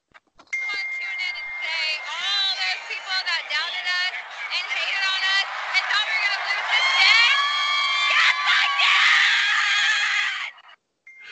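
A woman screams and cheers at high pitch, loud and continuous for about ten seconds, her shrieks layered over a busy crowd roar that swells and whoops throughout.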